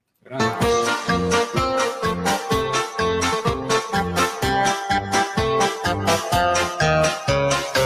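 An instrumental song intro plays loud and full, driven by a steady, punchy beat with bright layered instruments pulsing in regular rhythm, and no singing yet.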